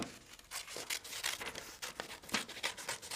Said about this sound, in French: Les enfants dessinent des poissons, découpent, découpent le poisson et ensuite, alors je découpe vite, vite, vite.